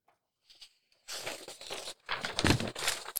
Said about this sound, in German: So, und ich habe ja heute mal ausnahmsweise ein Blatt Papier vor mir liegen als Notizen, wenn es ein bisschen raschelt. Das bin ich.